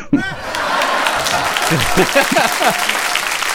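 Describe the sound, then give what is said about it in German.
A burst of canned studio applause with cheering played from a soundboard, dense and steady for a few seconds, like a sitcom laugh track. Voices chatter and laugh faintly underneath. “Das ist wie in so einer schlechten Ja, Sitcom. also mir gefällt ein Soundboard.”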